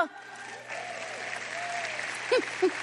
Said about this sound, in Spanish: Tú eres la solución. Date un aplauso.